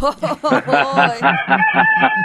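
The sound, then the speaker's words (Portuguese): A rooster crows loudly, a run of choppy, pulsing notes stretching into a long, drawn-out final cry, with no talking over it. “foi levar o galo também.”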